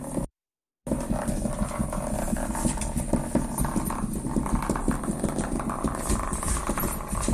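A small bullet vibrator buzzes and rattles loudly against a hard floor, a continuous droning clatter with a steady pulsing texture, broken only by a brief silence near the start.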